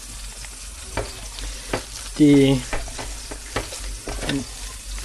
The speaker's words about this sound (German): So, ich habe jetzt ein Kloß in der Pfanne.